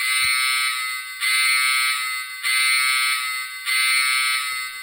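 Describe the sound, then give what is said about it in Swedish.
An electronic alarm signal from a Lego sound brick blares steadily, a harsh buzzing tone pulsing in four even bursts about a second apart, loud with no talking. “en larmsignal mm. som var i thai-hangaren”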